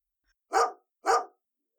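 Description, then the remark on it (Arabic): A dog barks twice in quick succession, two short, sharp, loud woofs about half a second apart, with silence around them and no other sounds. “سرعان ما التقت الفطيرة الكبيرة بكلب قال الكلب”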